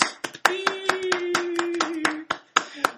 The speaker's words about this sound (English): Everyone in the room is clapping. It's, it's 100% yeah. of people are well, clapping Screen Verdict right so now. So your clapping sounds a bit pathetic, but like I wanted to give people context that there's no one else in the room